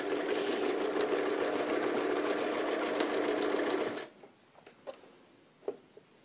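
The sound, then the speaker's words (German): A sewing machine stitches fleece fabric, running steadily for about four seconds with a fast, even mechanical whir, then stops, leaving a few soft clicks and fabric rustles. “Nähfuß hochheben, das Ganze wieder glatt ziehen, dann kriegt man das auch ganz schön hin”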